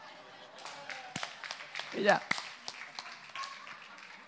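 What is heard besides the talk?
one person clapping hands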